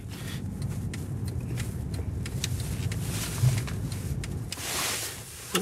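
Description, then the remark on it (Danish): Muffled, steady low rumble fills the enclosed space of a stationary car, with occasional soft rustles, small clicks and a brief whoosh near the end; nobody speaks. “Okay, skal jeg bare blive siddende i bilen?”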